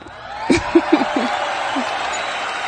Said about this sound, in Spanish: Un aplauso para nosotros, por favor.